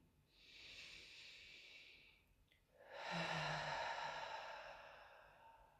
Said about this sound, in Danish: Og så lad os tage en afsluttende vejrtrækning sammen her.